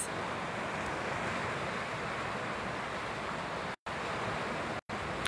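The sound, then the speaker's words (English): Steady rushing of river water flowing over a riverbed, a dense continuous wash with no voices, briefly cut to silence twice near the end. “Just like the riverbed, just like what I'm sitting on. No matter what that water does, the riverbed still is”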